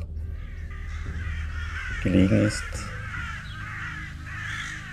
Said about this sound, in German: Raben kreisen oft über diesem Örtchen, weswegen es auch Ravenheim genannt wird von den Bewohnern des Örtchens Skjaldarholm.